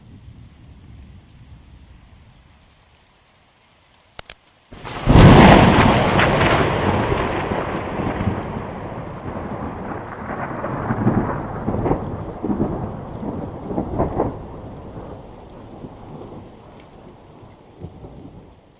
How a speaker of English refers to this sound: The sky is getting really dark, and I'm starting to hear thunder. Guess it's time to go inside because I sure don't want to get struck by lightning.